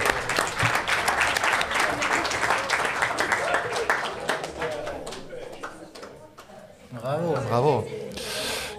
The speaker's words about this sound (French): Il y a un homonyme dans, parmi les participations, un jeune garçon. Bravo, on peut l'applaudir.